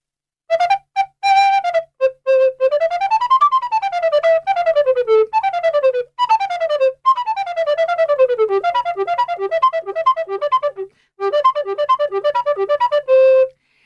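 A modern concert flute plays a lively solo melody, bright and strong in tone, with quick rising and falling runs, rapid repeated notes and a few short pauses between phrases.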